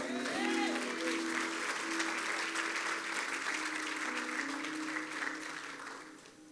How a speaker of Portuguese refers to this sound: Tem alguém que acredita nisso para dar um glória a Deus bem alto aqui nessa noite? Um aplauso a Jesus.